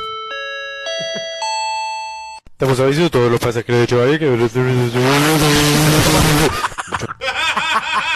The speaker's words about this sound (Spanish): bueno, para que ustedes tenemos el audio de cuando llegó un avión a Puerto Rico, vamos a escucharlo.